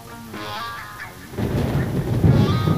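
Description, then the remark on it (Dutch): A sustained musical tone in a song gives way to a deep, rolling rumble of thunder with steady rain hiss, the storm swelling louder over the last second and a half. “En dan die regen.”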